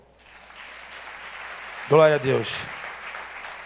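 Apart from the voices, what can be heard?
audience applause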